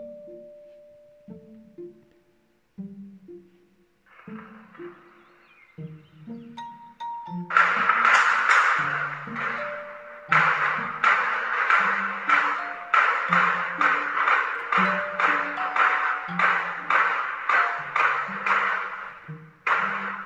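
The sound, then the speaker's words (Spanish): Bursts of rapid gunfire erupt after several seconds of quieter pinging tones, then continue in loud, closely spaced volleys for over ten seconds, with no voices heard. The shots are from the armed attack on Omar García Harfuch, head of Mexico City's Secretariat of Citizen Security, in Lomas de Chapultepec, Mexico City. “Así, así sonaron las balas en este atentado contra Omar García Harfuch, titular de la Secretaría de Seguridad Ciudadana de la Ciudad de México.”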